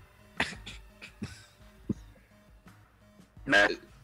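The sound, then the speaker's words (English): A few short, harsh coughs come at irregular intervals, moderately loud, with a longer, louder cough near the end over a low background hum. “Hear some coughing, like.”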